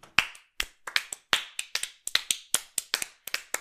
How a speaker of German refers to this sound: Können wir dafür bitte mal klatschen? Einfach.